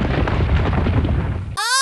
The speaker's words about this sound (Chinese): 好多好多的石头滚下来。像长了眼睛似的，全部冲向咕噜。